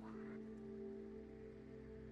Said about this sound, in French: Euh, il pleut.